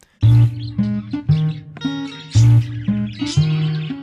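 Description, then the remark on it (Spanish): Small parakeets, similar to Australian budgerigars and endemic to the Islas Marías, chirp in a loud run of short warbling bursts, one after another with brief gaps and no talking. “Otros pequeños periquitos, tipo pericos australianos que también son endémicos de ahí.”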